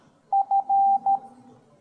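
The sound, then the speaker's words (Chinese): Morse code beeps: a steady mid-pitched electronic tone sounding four times, two short beeps, one long beep, then a short one, clear against near silence with no one talking. “我要输入 h hello，那我们只要只要滴滴滴滴四声就可以了”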